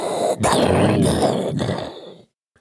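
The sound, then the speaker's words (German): A voice imitates a howling storm wind: one loud, breathy roar lasting about two seconds with a few surges, then it cuts off into silence. “Eingeläutet. Das war der Grüße Sturm.”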